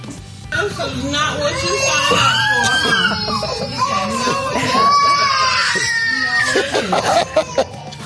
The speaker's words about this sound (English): even with all the screaming